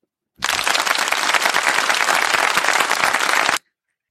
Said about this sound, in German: Applaus einspielen. Applaus einspielen? Ja, unser, unser Publikum ist ein bisschen phlegmatisch heute.